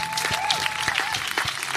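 An audience applauds steadily, a dense wash of many hands clapping at moderate loudness, with a faint sustained whistle-like tone running underneath.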